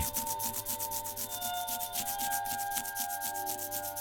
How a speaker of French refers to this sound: Bruit des doigts de charbon de bois sur le papier, esquisse de la Madone qui baille.